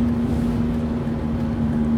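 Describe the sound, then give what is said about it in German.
A broken car wheel bearing drones steadily, a constant low-pitched hum riding over continuous vehicle road rumble, holding an even loudness throughout with no talking. “Damit ich äh, und ihr auch dieses Geräusch von dem kaputten Radlager uns nicht mehr weiter antun müssen.”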